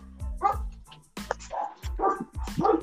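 Dogs bark in a rapid, excited series of about five sharp barks mixed with higher yips, fairly loud, with no talking.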